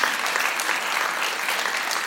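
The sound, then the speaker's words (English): A crowd applauds the leaders, with many hands clapping in a dense, even patter that holds at a constant loudness for about two seconds. “Why don't we just give them all a clap?”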